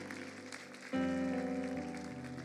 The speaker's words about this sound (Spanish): Vamos a darle un aplauso a aquellos que tomaron esa decisión.